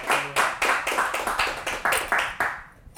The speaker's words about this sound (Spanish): Alguien le da un aplauso fuerte al Señor. Vamos, dale un aplauso fuerte al Señor. La iglesia prudente, denle una, un aplauso fuerte al Señor.